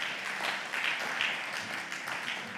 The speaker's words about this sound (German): Ah ja, geben wir doch einen Applaus, wirklich.